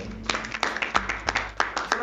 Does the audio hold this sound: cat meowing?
no